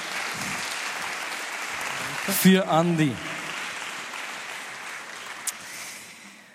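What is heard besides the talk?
audience applause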